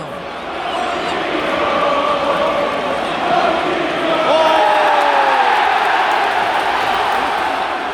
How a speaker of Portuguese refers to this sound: A gente está ouvindo a torcida do Chelsea cantando o nome do Jorginho, mas é, isso não é só porque ele fez os dois gols de pênalti. Eles já estavam cantando o nome